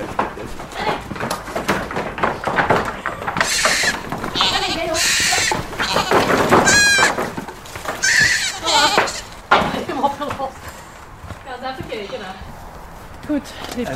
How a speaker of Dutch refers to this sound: lopen acht geiten en één babygeitje vrolijk op het koertje rond.